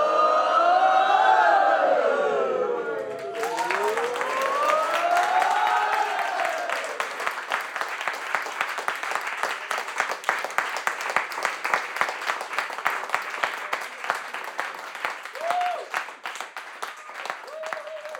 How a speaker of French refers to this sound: Peut-être que le rituel de clôture, ça pourrait être ça, envoyer une salve d'applaudissements à nous tous pour tout ce qu'on a déjà fait.